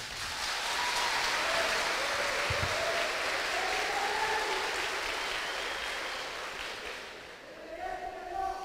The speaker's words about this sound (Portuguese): Quando um aplaudir, os outros aplaudem também para não para não ficar ruim. Vai, vai, irmão, começa.